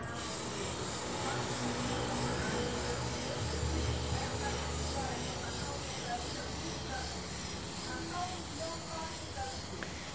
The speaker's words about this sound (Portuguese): E junto com esse som do brinquedo, você continua ouvindo o ambiente, né? a televisão ali, os carros lá fora, como eu falei.